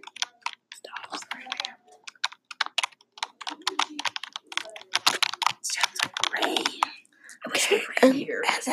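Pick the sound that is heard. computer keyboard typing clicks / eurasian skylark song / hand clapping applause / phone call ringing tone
computer keyboard typing clicks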